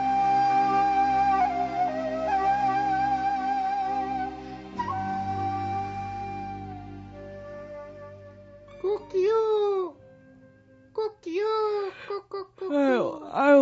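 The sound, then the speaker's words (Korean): A steady, droning harmonic tone plays for several seconds, then a human voice imitates a rooster crowing in the yard of a house, with a few loud, swooping calls in quick succession. “아니, 너 누군데 남의 집 마당에서 이렇게 닭소리를 내고 있냐?”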